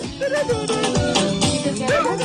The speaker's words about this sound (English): So, what you're hearing now is the sound of the French World Cup team celebrating. Yes, the French World Cup team.